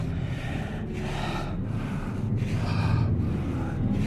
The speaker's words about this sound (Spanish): Podía oír la respiración agitada el animal. Y aunque me sentía sobrecogido de terror, me di cuenta de que venía de muy lejos. Por consiguiente, al parecer, estaba fatigado.